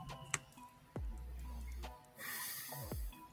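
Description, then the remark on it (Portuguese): Breathing in a pause with no talking: a low, snort-like rumble and then a long, airy breath, plus a few faint clicks. “Eu gosto porque daí só ouve a respiração.”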